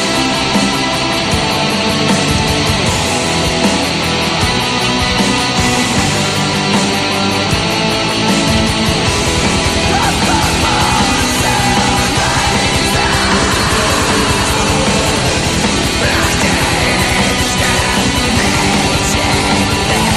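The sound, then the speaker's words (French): Loud, dense black metal plays throughout, a harsh wall of distorted guitars and relentless drums with screamed vocals buried in the churning noise, with no spoken talk. “Comme je dis, c'est pas de quoi qui qui réinvente la roue, mais ça répond vraiment aux critères de ce que moi j'en connais, en, tout cas du, du, moins de, du black metal qui vient de là-bas. Fait que, ben, sans plus tarder, un petit extrait.”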